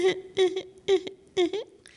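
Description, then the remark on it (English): A voice imitates a tired, hungry newborn's quiet fussing: four short, whimpering cries in a steady rhythm about half a second apart, moderately soft, with no other talking. “There are the children in the nursery who, when they're tired and hungry, sound like this.”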